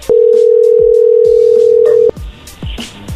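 After a phone call is cut off, a loud, steady telephone tone holds one low pitch for about two seconds, then cuts off abruptly, leaving quieter background noise with scattered soft clicks and knocks.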